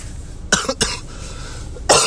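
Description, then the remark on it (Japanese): A seasonal cough during an early-morning voice broadcast: a quick cluster of two or three harsh, dry coughs, followed after a short pause by one more sharp cough. No talking, just the coughs over a quiet background. “ちょっとですね、ま、あの、今時期になると咳がちょいちょい出るんで、はい。”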